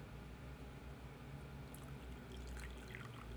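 Tea is poured next to the microphone for ASMR in a steady trickling stream, with a few brighter splashy bursts toward the end and no talking.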